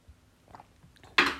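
Soft mouth and lip noises, then a brief, louder slurping swallow toward the end, like someone taking a quick sip of a drink. No one speaks.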